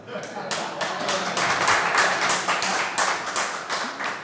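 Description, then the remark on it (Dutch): A rapid series of about a dozen sharp, loud knocks in a fairly steady rhythm, each rap crisp and bright, continuing for several seconds with faint murmuring underneath. “U klopt net iets te hard.”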